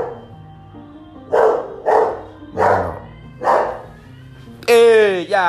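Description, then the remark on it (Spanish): A pet dog that has just come in barks four times in a steady, evenly spaced series, fairly loud, then lets out a high, wavering whine at the end, over a low background murmur. “Uy, aquí entró mi perrito.”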